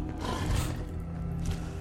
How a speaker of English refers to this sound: Okay, something is stomping around upstairs. Wow, I don't think it's a mole rat. Oh my gosh. And and the whole place shook and there was some grunting